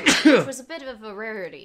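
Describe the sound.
A single sharp sneeze bursts out, and then someone goes straight into talking in a calm voice.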